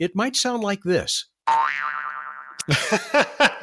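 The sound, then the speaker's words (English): A cartoon spring boing rings out after a brief silence, a wobbling, warbling twang that sustains for about a second, with people talking and laughing just before and after it; used to imagine the sound of a spacecraft's landing legs being deployed. “speaking of springs,”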